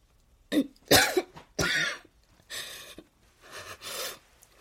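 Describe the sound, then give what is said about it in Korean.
A voice mimics a sick hen with a run of about five raspy, wheezy coughs and throaty huffs, fairly loud, spaced irregularly with short pauses and no words. “병든 암탉이 기침하듯 중얼거렸다.”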